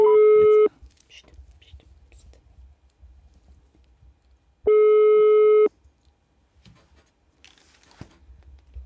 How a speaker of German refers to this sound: Es klingelt.